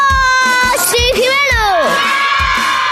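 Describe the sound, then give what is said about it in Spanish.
Children shout and cheer loudly on the Cadena 100 radio station over a steady, thumping beat. Their high voices sweep up and then slide down in pitch, sustained for about three seconds. “¡Los niños!”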